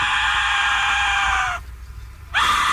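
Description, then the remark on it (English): A loud, piercing, harsh scream from an Aztec death whistle, a sustained shrill wail that breaks off into a brief pause, then shrieks again near the end. “let's play what they're calling the Aztec death whistle”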